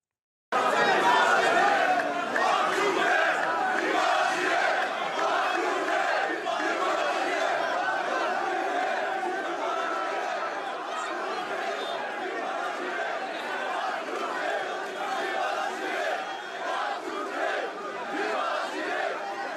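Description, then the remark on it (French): A dense crowd of Algerians shouts and clamors continuously around French President Emmanuel Macron during his visit to Algeria, many voices overlapping loudly, with heckling calls rising above the steady roar throughout. “Regardez cette séquence d'Emmanuel Macron dans la foule avec les Algériens, un petit peu chahuté le chef de l'État français.”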